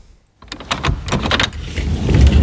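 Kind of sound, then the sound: household object, door being opened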